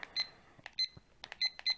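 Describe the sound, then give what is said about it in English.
A handful of short, high-pitched electronic timer beeps, about four, spaced unevenly and mixed with small clicks and taps, clear with no talking. “didn't set your timer.”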